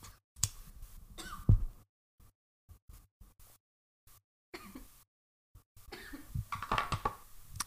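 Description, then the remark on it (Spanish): Someone takes a hit of marijuana and then coughs hard in several rough bursts, broken by brief quiet pauses before a longer, raspier coughing fit at the end. “Déjame doy un toque porque esto que voy a decir eh, ya es para cerrar”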